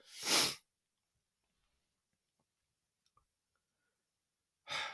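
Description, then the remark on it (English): A loud sneeze bursts out, followed by near-silence with a faint click, then another sharp sneeze-like burst begins right at the end. “I hope you guys heard that sneeze.”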